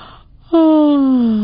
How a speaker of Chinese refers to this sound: 等一下，等一下，这个我会哦，打哈欠我很厉害的。来来来，我打哈欠给你们看哦，你们帮我数一二三哦，预备开始，一、二、三，